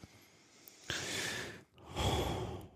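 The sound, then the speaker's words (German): A person imitates heavy breathing, two loud, rasping breaths drawn in and pushed out, each lasting almost a second, with a brief pause between them. “Hm, schweres Atmen. Schweres Atmen.”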